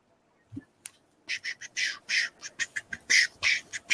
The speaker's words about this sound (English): My light fell and you heard the batteries crashing.